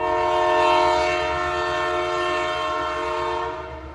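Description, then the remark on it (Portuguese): A train rumbles along the tracks while its horn blares a long, steady, multi-toned blast, loud, fading slightly near the end. No one speaks. “O trem literalmente chacoalhou a economia do local”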